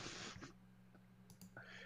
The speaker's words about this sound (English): this guy's fucking typing and he's making me laugh, bro.